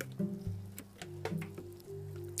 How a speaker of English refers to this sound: Sorry guys, I need a little bit of water.